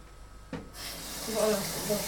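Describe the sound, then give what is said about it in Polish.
More water is poured into a cooking pot while cooking, starting abruptly and running as a steady splashing hiss for over a second, with faint ringing tones from the pot as it fills. “Można jeszcze dolać wody.”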